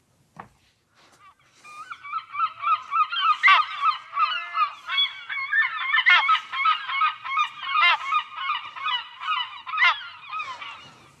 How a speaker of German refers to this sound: Die Silbermöwe habe ich sogar heute mitgebracht, Vielleicht Ach, cool, dachte, so ein bisschen ja. Urlaubsgefühl für, für die Zuhörenden hier. Ich spiele sie mal ab.